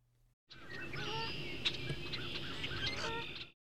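A recording of bird calls from the Cornell Lab of Ornithology: a dense chorus of nasal honking and squawking cries overlapping continuously for about three seconds, fairly loud, with no talking.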